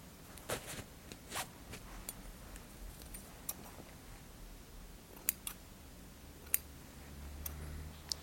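scissors trimming beard hair

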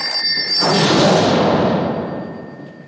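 toy telephone ringing

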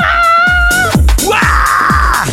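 woman screaming

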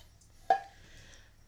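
drink being poured

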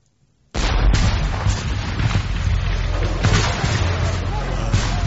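cannon fire bombardment

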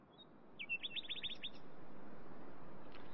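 nightingales singing at night

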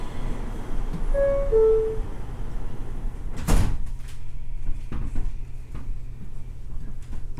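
subway train doors closing

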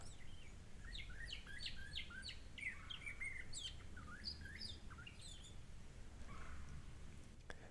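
northern cardinal singing

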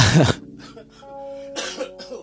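coughing

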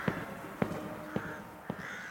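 crows cawing

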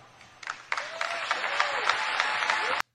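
audience applause

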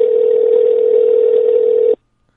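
telephone dial tone

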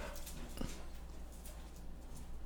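dog whimpering and barking

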